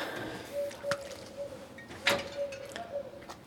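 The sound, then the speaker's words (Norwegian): A door moves with a couple of sharp clacks and rattles, set against a faint, steady electric hum. Quiet, with no talking. “Døra Døra”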